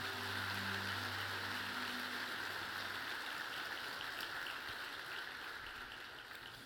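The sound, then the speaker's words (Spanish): An audience claps loudly for the Lord in a dense, continuous wash of applause, with a low sustained musical tone underneath for the first few seconds, tapering slightly toward the end. “Ahora dale un fuerte aplauso al Señor.”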